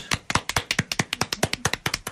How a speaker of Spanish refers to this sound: Bravo, bravo, aplausos.